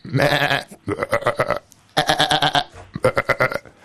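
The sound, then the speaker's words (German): A person imitates goats with a string of loud, wavering bleats, several bursts in quick succession with short pauses between them, with no other sounds. “Und wenn diese Ziegen nicht so rote Roben anhätten, dann wüsstest du überhaupt nicht, was los ist.”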